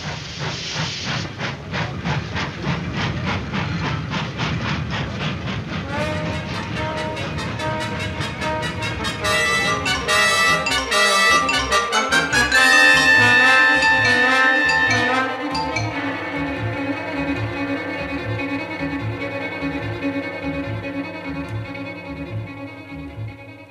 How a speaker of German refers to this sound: und der Zug brauste davon, hinaus in die dunkle, finstere nordamerikanische Nacht der herrlichen Millionenstadt Chicago entgegen.